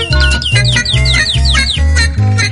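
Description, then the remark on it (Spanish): Quick, repeated bird chirps trill above a loud, rhythmic backing of deep pulsing bass and sustained tones, the chirps coming in short bursts throughout with no one speaking. “A mí me gusta flot tener pájaro de fondo, te lo digo sinceramente.”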